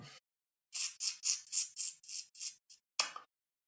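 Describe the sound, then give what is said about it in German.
A person, while thinking, sucks air sharply through the teeth in a quick run of about eight short hissing bursts, then one more after a brief pause; fairly quiet, with no talking. “Ja, ich, ich beiße mir auf meinen Lippen rum oder irgendwie sowas oder ziehe Luft durch.”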